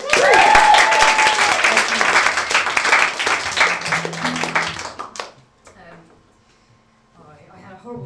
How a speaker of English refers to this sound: Give her a round of applause.